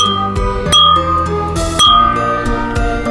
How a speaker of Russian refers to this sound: Это мы чокаемся за нашу прекрасную, мне кажется, вкусную тему